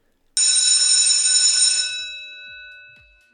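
A loud electric school bell rings in one continuous, rattling burst for about a second and a half, signalling that school is out, then stops and its metallic tone slowly fades out. No one speaks.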